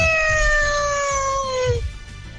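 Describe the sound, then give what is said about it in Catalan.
A voice imitates a listener's CBR superbike with a cat-like meow: one long, nasal, high tone sliding slowly downward for nearly two seconds before cutting off, over a low background rumble. “va molt aquesta moto gato, eh? Té moto gato.”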